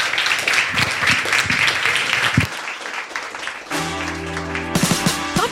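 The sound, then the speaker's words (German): An audience breaks into a dense wash of steady applause for a few seconds, then the clapping gives way to a short musical jingle with sustained, even tones. “Und äh, noch einen schnellen Applaus und dann machen wir hier in einer Viertelstunde weiter.”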